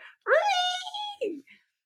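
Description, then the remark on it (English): A screech owl, as heard in the film My Cousin Vinny, calls once with a loud, quavering wail that rises quickly and holds a high, steady pitch for about a second, then ends with a brief, lower, rough note. “And in one part, a screech owl wakes him up in the middle of the night.”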